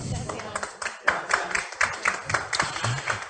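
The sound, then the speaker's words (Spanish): A burst of applause, with steady rhythmic clapping at a moderate level continuing for a few seconds without any talking over it. “Les brindamos un fuerte aplauso.”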